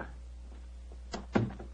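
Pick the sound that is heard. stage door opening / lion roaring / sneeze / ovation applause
stage door opening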